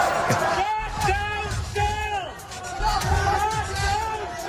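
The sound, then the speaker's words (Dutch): Climate activists shout and call out together in a loud, sustained hubbub at a Shell shareholder meeting in London, rising in repeated bursts like a protest chant. “Uh, heeft dus te maken met ja, klimaatactivisten onder andere die zich uitspreken. Bijvoorbeeld laatst bij Shell in Londen. Dat klonk zo.”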